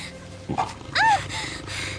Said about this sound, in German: Das Knurren war hinter ihr aufgeklungen.